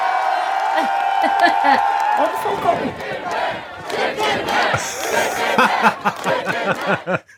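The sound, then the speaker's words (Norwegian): Hundreds of Philadelphia residents chant "Chicken Man" in loud, rhythmic unison, voices rising together in repeated bursts with a roaring, festive energy. “Chicken Man roper hundrevis av Philadelphia sine innbyggere.”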